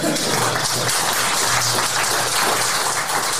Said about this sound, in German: Applaus für den